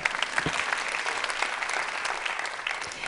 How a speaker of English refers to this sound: Really, I clap for you.